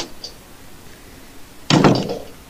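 A door shuts with a single solid thud, followed by a brief rattling decay, in otherwise quiet surroundings.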